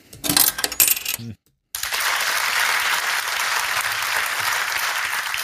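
A brief burst of metallic clinking and clatter, a moment of silence, then a steady wash of audience applause for a 'yes' answer to a repeated question, holding at an even level for several seconds, with no voices.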